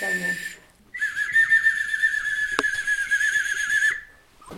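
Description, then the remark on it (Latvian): A traditional Latvian clay whistle (svilpaunieks) is blown: a short shrill note, a brief pause, then a longer warbling tone with a fluttering trill for about three seconds before it stops. “Lūk, arī vidzemē ir bijuši no svilpaunieki, man šķiet, vai visos novados, kur zemē arī gatavojas.”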